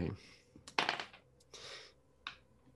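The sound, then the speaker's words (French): Small metal pieces, like a handful of nails, clink and jangle together in a few bright, rattling bursts separated by brief pauses. “ça ressemble à comme un paquet de clous, C'est comme qu'on cognerait ensemble, plein de petits morceaux de métal qu'on cogne ensemble”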